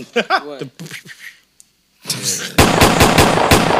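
Rapid bursts of loud gunfire crackle in a steady, fast rhythm, like a machine gun sound effect, following a short stretch of voices and a brief pause.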